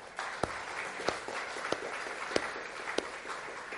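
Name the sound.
audience clapping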